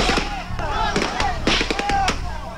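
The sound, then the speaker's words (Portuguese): Several sharp gunshots crack out in an irregular burst, fairly loud, with a few quick shots bunched together, over a noisy outdoor background of shouting voices: the first shots fired as Military Police riot battalion soldiers confront landless workers on a road at Eldorado dos Carajás. “Os primeiros tiros são disparados.”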